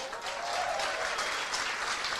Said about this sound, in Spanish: El viernes 22, en Rosario, se va a dar la orientación empresarial y la va a dar, que pido un fuerte aplauso,